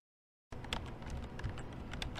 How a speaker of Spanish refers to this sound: Manolo escribiendo en el teclado con línea braille.